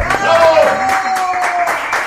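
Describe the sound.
An audience applauds in a dense, steady burst of clapping lasting a couple of seconds, with a sustained whistle-like tone and voices mixed into the noise.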